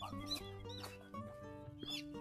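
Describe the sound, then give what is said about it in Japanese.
Birds perched in cherry trees, already in leaf, in a park, calling outdoors in a run of short, harsh chirps and squawks repeating every half second or so, fairly faint, with no one talking. “鳥の声聞こえますかね。”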